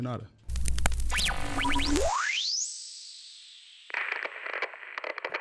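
A bouncy electronic track opens with chopped, bright vocal-like snippets and springy chirps, then a rising synth sweep glides into a sustained high tone before crackly, static-textured bursts kick in.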